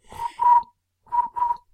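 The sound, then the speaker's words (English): A person imitates cricket chirping with their voice, producing two pairs of short, buzzy chirps separated by a brief pause, fairly loud with no other sounds. “That's a horrible cricket noise.”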